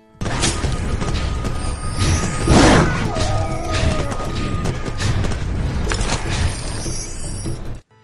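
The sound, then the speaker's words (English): A hack-and-slash video game sound of coins and collectibles being spat out by dying enemies and hoovered up: a loud, dense, continuous clattering whir with a brief gliding tone midway, cutting off abruptly after about eight seconds. “Yeah, they that's the sound of the your their collectibles being spat out serious?”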